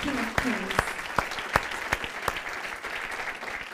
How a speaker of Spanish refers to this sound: Puedes darle ese fuerte aplauso ahora sí al Rey de Reyes.